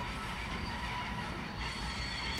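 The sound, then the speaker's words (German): Steady rumbling rail noise at the railway station in Vorheim, with a faint high whine running through it, like a train idling or rolling slowly. No one speaks. “ich bin am Bahnhof in Vorheim eingekommen und warte jetzt hier auf die Gunvor, die mit dem Zug aus Bamberg kommt”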